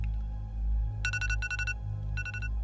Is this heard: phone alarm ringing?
yes